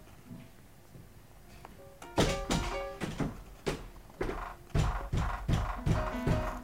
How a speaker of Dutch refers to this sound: De deur begint opmerkelijk hard te bonken. Iemand bevoelt de klink.